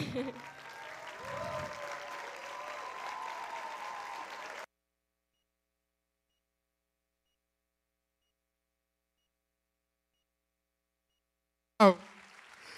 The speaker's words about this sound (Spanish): Fuerte el aplauso al Señor en esta mañana.